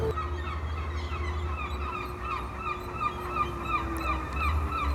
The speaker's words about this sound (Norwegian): Ja, Vi hørte måkene i Tromsø sentrum der